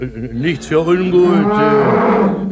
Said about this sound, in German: Bellt ein bisschen komisch eure Kuh, was?